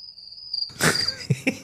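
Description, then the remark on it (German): Crickets chirp in a thin, steady high-pitched drone, briefly alone, before a loud breathy burst and a couple of soft knocks break in over the continuing trill. “Ich müsste jetzt so einen Ton einblenden von Grillen.”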